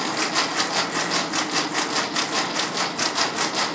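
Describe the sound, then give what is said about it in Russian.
A blind football ball, which rings so sightless players can find it, rattles and jingles steadily as it is shaken by hand in quick, even pulses, fairly loud, with no voices. “Я сейчас Будут делать активное движение руками, вы услышите, что мячик звенит обычно, То есть электроника внутри мяча отключится.”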